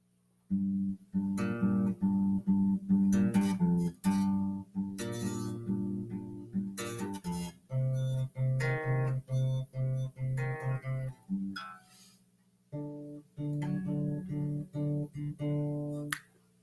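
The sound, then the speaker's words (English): A solo guitar plays a catchy pop song's intro riff, worked out from guitar tabs, plucked notes repeating in a steady, bouncy rhythm, clear, with a brief pause near the end before the phrase resumes. “However, it is kind of muffled, so I had to go on guitar tabs to figure out how to play it, but it was the first free tab and it's very accurate to the song and it sounds like this.”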